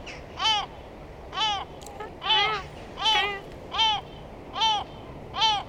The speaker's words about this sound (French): Alors c'est le goéland le coffet apparemment. Là il est seul, hein, quand ils sont beaucoup plus, et euh, quand ils sont un peu énervés, ça fait pas le même, euh, ça fait pas vraiment le même son quoi.